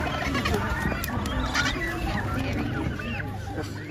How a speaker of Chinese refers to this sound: 那您现在听到的声音呢，是来自于南极洲帕尔默群岛维恩克岛西侧的达莫伊角的巴布亚企鹅的叫声。